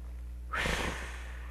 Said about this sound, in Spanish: Toma una respiración suave y exhala. Otra respiración suave, exhala.